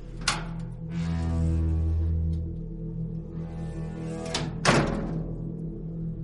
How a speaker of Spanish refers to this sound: Todo estuvo tranquilo hasta que escuché que la puerta se abrió.